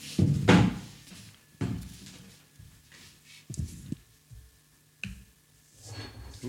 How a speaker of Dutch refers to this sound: Nou, ik ga hem gewoon even zo draait de microfoon om ja.